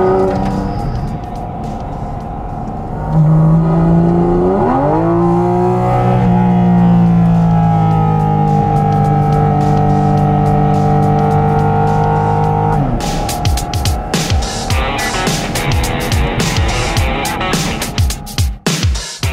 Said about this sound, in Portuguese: O motor é o mesmo utilizado, esse motor 4.0 6 cilindros de 500 cavalos, é o mesmo usado em, em pista de corrida com carro de corrida, por exemplo, com 911 GT3. Olha só o ronco do motor.